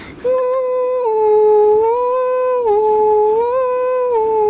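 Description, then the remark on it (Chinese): A fire engine siren wails steadily on its own as the engine, red lights flashing, heads to a fire: a loud, high tone that holds and dips slightly in pitch a couple of times before rising again, with no talking. “救火车一路上闪着红灯。”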